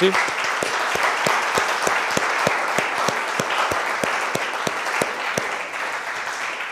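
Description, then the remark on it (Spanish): A large church audience applauds God, a dense wash of clapping with a steady rhythmic beat running through it, sustained for several seconds and easing slightly toward the end. “¿Qué tal si le damos un aplauso gigante a Dios por eso?”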